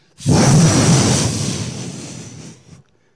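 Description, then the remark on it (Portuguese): A loud, roaring rush of wind-like noise swells in suddenly, holds for about two and a half seconds with a deep rumble underneath, then fades and cuts off. No voices. “A palavra diz que veio um som, como de um vento. Um som que encheu toda a casa.”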